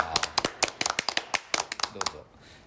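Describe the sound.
A brief round of hand clapping from a few people, with quick, uneven, close claps that rattle along for about two seconds before stopping, and faint voices underneath.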